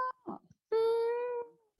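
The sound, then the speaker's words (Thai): A cat gives one drawn-out, clear meow, lasting under a second, after a couple of brief soft rustling noises. “น้องแมวสนใช่ไหมใช่ขอจัดการไม่เอาไม่กัดต้นไม้ ลูก ไม่กัดต้นไม้ค่ะน่ารักสวัสดีมาเนาะ”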